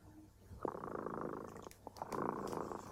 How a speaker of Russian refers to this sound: А наш кот Дремота запел свою песенку